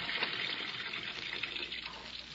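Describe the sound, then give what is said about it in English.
Water pours steadily into a bathtub to fill it about half full, a continuous hissing rush with a slight splashy texture and no pauses, heard on its own without any voices. “But if I could get into a pair of swimming trunks, swimming trunks and into a tub half full of water, I think I may be able to prove a very important point.”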